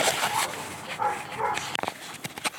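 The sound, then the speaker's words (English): Several dogs bark and yip excitedly in quick, overlapping bursts, with a few sharp high yelps near the end, with no talking. “All right, I think I'm going to take a break because the dogs are losing their minds now,”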